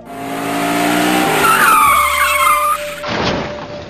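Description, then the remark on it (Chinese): A motorcycle engine roars, then tires squeal in a sharp, wavering skid for over a second, ending in a loud crashing clatter as a mother riding the motorcycle falls with the bike. No one speaks. “今年八月，从妹妹口中得知，妈妈每次骑摩托车都跌倒，”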